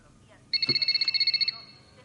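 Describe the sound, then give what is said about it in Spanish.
A mobile phone rings with a single rapid, trilling burst lasting about a second, bright, then cuts off, leaving quiet. “No es el que suena.”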